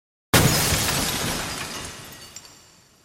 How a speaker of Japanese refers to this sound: その瞬間、硬質な金属が砕けるようなものすごい音がした。